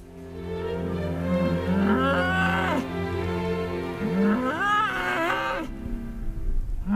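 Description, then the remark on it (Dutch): Deep, drawn-out mooing from red-brown, long-haired Scottish Highland cattle in a herd of about 150, two long calls with rising and falling pitch over a steady low rumble, loud, with no talking. “Ik woon te midden van zo'n 150 Schotse hooglanders.”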